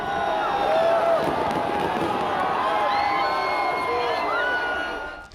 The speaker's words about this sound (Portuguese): Muita atenção, fogos e cantos para empurrar o time à distância.